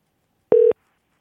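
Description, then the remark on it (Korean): A single short electronic telephone tone sounds as a radio show places a call to a listener who sent in a text message: one clean, steady beep lasting a fraction of a second, with silence on either side and no voices. “예, 1089 전화 걸어봅니다.”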